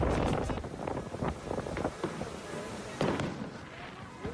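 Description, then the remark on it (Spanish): A rapid barrage of commercial-grade fireworks explosions set off in a house in Ontario, California, with sharp bangs and crackling pops overlapping in an irregular string, and a couple of louder blasts standing out against a continuous rumbling wash. “Dos personas murieron el día martes cuando una poderosa explosión provocada por fuegos artificiales de calidad comercial se encendieron en una casa donde dañó varios edificios y esparció escombros en una amplia zona de Ontario.”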